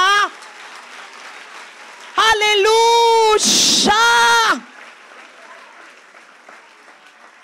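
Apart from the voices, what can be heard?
audience applause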